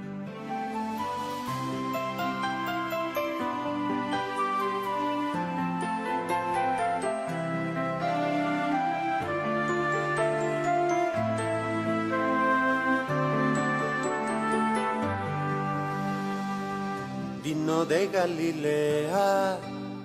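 A steady instrumental introduction with sustained chords and a gentle melody at even loudness, no voices, turning brighter with a gliding, wavering phrase near the end.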